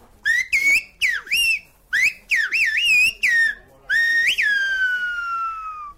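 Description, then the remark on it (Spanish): Loud whistled phrases in Silbo Gomero, a whistled language, demonstrated on La Gomera: a series of sharp rising and falling pitch glides in short bursts, ending in one long sustained whistle that slowly falls. No talking. “Bueno, y además también ahí en la, en la Gomera te hicieron hasta una demostración de Silvio Gomero.”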